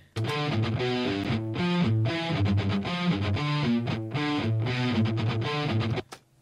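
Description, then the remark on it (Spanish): A buzzy, mosquito-like, cheap-sounding metal-distorted guitar track played on its own, a loud, steady riff of held notes that shift pitch in a repeating pattern, then cuts off abruptly after about six seconds. “Suena barato, pero ya en la mezcla... O sea, si te fijas, todo ese pinche sonido como de mosquito, güey, de la chingada, en la mezcla ya no se escucha, güey.”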